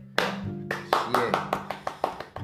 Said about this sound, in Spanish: Sí, es Este no es un efecto, ¿no? No, no es un efecto, pero Bueno, estamos aplaudiendo en serio.